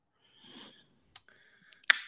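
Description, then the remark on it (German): A few sharp clicks like a computer mouse being pressed while browsing a website, spaced irregularly after a soft brief rustle, with the last click the loudest; no one speaks. “Also wenn ich bei ihm auf der Webseite bin und auf Tour klicke, erscheint nichts.”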